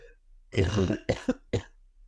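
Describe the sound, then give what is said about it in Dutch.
A fairly loud throat clearing by a person with a slight cold is followed by three short, sharp coughs in quick succession, with no talking around them. “Ik ben een beetje verkouden voor de luisteraars, dus sorry als mijn stem raar klinkt, daarvoor te hoesten.”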